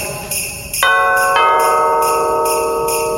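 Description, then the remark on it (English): Sleigh bells jingle in a steady, rhythmic shake, joined after a moment by sustained ringing bell tones that layer over them. The sound is loud, with no voices. “Enough of the sleigh bells already.”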